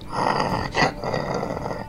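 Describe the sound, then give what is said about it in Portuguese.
A low, rumbling creature growl sustains for about two seconds, steady, with a brief louder swell midway before settling back into the throaty snarl; the creature growls again after licking its lips. “Ele olha para vocês de volta, lambe os beiços e volta a rosnar.”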